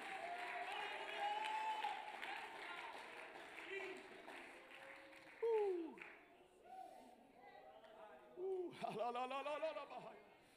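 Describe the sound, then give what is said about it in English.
An audience claps hands at a church service in a steady, dense wash of applause, with loud shouts of praise to God and excited voices rising over it throughout. “Can you clap your hands and can you shout praise unto God?”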